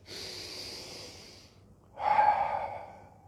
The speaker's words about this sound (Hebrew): אז אני שם את הפוקוס על הנשימה, אני מעדיף את זה ואומר על זה תודה. תודה על הפוקוס על הנשימה, נושם.